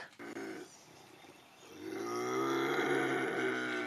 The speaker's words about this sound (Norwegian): Nei, andreplass ei misfornøyd gaupe.